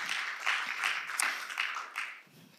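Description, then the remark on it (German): Sustained applause from a church audience for its two pastors, a dense wash of many hands clapping at once, steady and fairly loud, with faint voices mixed in and fading slightly toward the end. “aber lass uns doch den beiden einfach mal einen Riesenapplaus geben, um unsere Dankbarkeit auszudrücken, dass wir so gute Pastoren haben”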